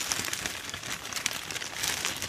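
Steady crinkling and rustling of wrapping paper as a present weighing under 5 kilos, light enough to hold on one arm, is unpacked: a continuous dense crackle with small sharp bursts throughout, no voices.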